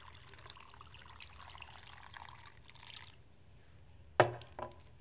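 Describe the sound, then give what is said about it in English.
Water pours steadily into a container already filled with sand for about three seconds with a soft, rushing splash, then stops, followed by two sharp knocks. “I got water. And so if I fill this up,”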